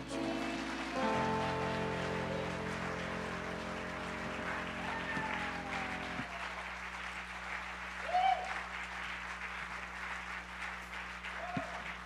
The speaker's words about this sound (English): Put your best hand clap together for Bishop Hooks.